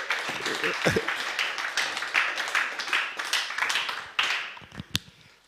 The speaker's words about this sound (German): Come on, lass uns für das Gott einen Applaus geben. Woohoo!